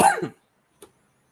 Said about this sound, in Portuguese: como você sabe, eu estou tossindo, né? Porque saí de Covid há pouco tempo. É, eu vou ficar tossindo um tempão ainda.